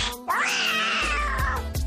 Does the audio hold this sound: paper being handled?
no